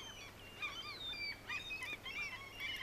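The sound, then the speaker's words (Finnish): Several common gulls call over one another in a busy, overlapping chorus of shrill, nasal cries, fairly loud, with no pauses and no talking. “Pääosin nämä ovat kalalokkeja.”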